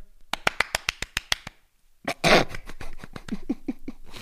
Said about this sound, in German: Jetzt spielen wir ein bisschen Applaus ein.